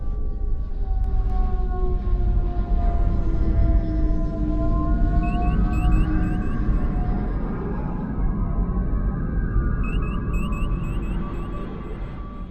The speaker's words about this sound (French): Euh, moi j'adore par exemple le son des moteurs à impulsion du Kelvin.